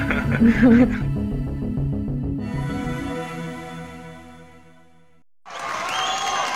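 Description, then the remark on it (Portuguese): Melodic, musical tones ring out and fade, then a short burst of applause breaks in at the end as people applaud someone arriving to make a delivery: a dense, steady clatter of clapping, fairly loud, with no voices. “Você vem fazer entrega, todo mundo me aplaudindo, ó.”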